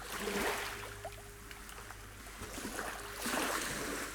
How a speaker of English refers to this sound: there's a kind of poetry to me ending up here, listening to the gurgles and roar of the waves.